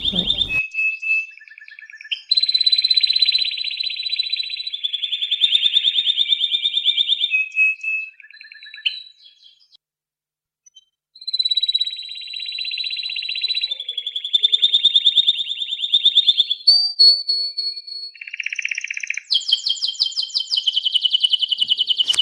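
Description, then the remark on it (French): Birdsong rings out loud in a shared garden: long whistled phrases laced with rapid trills, in two extended bursts separated by a short quiet pause, with no one talking. “Ces jardins partagés et ces chants d'oiseaux, c'est vraiment au printemps et en été que ça fonctionne.”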